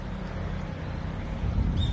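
A motorbike rumbles past in the background, its low engine drone steady and moderately loud, swelling slightly toward the end over general outdoor road noise.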